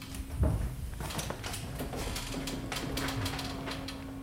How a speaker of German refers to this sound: Jetzt sind wir einen Stock tiefer im Sammlungsraum. Also das sind unsere äh, Räume, wo wissenschaftliche Sammlungen aufbewahrt werden. Mit dem richtigen Code geht die Türen auf.